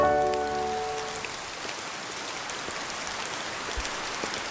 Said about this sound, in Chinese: 乖乖，下雨的声音很好猜吧？